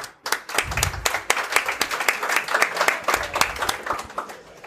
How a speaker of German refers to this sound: Ich würde sagen, zum Einstieg mal ein ganz kurzer Applaus, damit die Hörer des Podcasts hören,